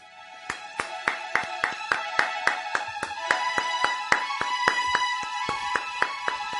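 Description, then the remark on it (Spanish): Steady, rhythmic clapping behind the studio glass, about three or four sharp claps per second for several seconds, over a faint sustained tonal hum, with no one speaking. “Hay aplausos detrás de la pecera, ¿eh?”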